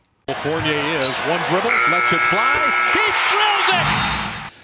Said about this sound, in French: Le buzzer du carton retentit.